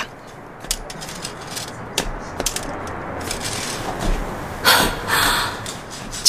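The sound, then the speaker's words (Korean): A walking cane taps and drags over asphalt in an irregular, halting rhythm as a person slowly walks at night, with sharp knocks early on and two longer, louder gritty scrapes near the end over a steady low hiss. “쉽게 다가오지 못하는 발걸음과 아스팔트에 질질 끌리는 지팡이 소리.”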